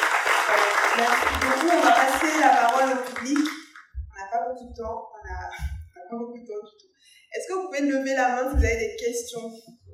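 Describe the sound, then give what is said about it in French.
An audience breaks into a dense, steady burst of applause lasting a few seconds, then it fades out and people begin speaking. “Je pense que vous pouvez vraiment les applaudir pour leur énormité.”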